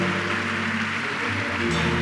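audience applause

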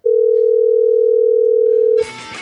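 telephone dial tone

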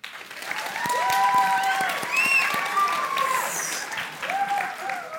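audience applause

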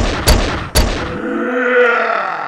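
gunshots

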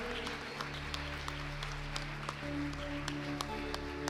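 audience applauding

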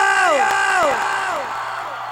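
crowd cheering loudly

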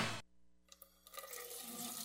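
water running

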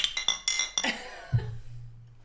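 glasses clinking

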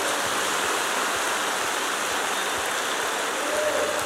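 audience applauding

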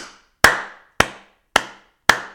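applause sound effect

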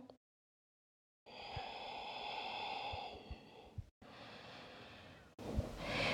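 deep breathing

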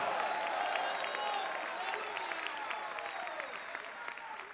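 audience applauding loudly

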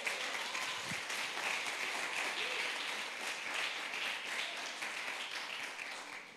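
audience applauding

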